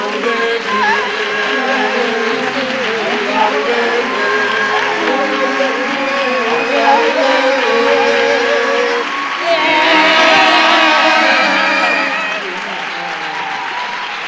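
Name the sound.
audience applause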